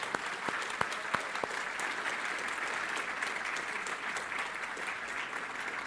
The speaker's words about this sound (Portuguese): Oh, que coisa linda! Vamos dar um aplauso ao Senhor pela sua palavra.